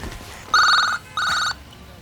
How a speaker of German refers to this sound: Gerade als der erste Detektiv auf den Klingelknopf drücken wollte, ertönte das Handy in seiner Jackentasche.